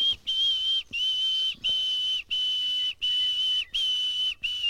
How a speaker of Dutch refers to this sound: Een nachtegaal zingt veel luider nog. Oh, daar, gaat, hij.